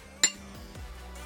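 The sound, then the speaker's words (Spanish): A single bright clink of glasses touching in a toast, short, ringing briefly before fading into a quiet hum. “¡Salud!”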